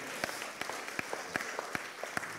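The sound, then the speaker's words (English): An audience applauds, a steady wash of many hands clapping with a few sharper, louder claps standing out. No one speaks over it. “If my mother asked today, clap her hands for your preparation.”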